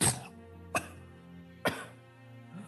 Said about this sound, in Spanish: Todos ven eh, cómo Ralm por un segundo empieza a toser y una, y una sangre negra cae al piso.